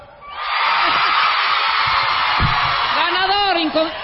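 A crowd breaks into loud, sustained applause that holds steady for several seconds, with high cheers and whoops rising above the clapping toward the end.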